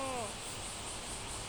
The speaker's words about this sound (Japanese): 今、ベランダにいます。セセミの声聞こえてますかもうすぐ夏の季節ですね。